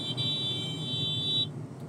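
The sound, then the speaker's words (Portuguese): A single long car horn blast on a road after a truck alongside cut off a driver in the next lane, steady and fairly loud, holds for about a second and a half over low traffic rumble, then cuts off, leaving engine noise. “caminhão que tá do lado e cortou o cara que tá na pista do lado. Vai fazer parte desse episódio”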